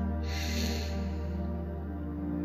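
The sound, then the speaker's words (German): A long, deep breath drawn in through the nose, a soft airy hiss that swells quickly then slowly tapers off over a couple of seconds, quiet, with no talking. “Dann atmen sie tief durch die Nase ein”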